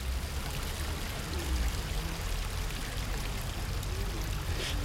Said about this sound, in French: Bah, c'est au bord de la Dourbie. La Dourbie, c'est une rivière qui est, quand même assez euh, connue maintenant, qui c'est un cadre exceptionnel, un sanctuaire, on pourrait dire même.